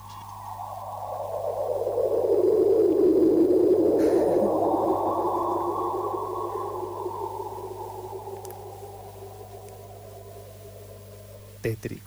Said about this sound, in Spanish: esa radiación que escapa la convierten en sonido. ¿sí? Eh, y cuando se arma una diferencia en el tiempo de viaje, digamos, cuando la luz pasa por el agujero negro, se escucha como una distorsión, que más o menos se escucha así.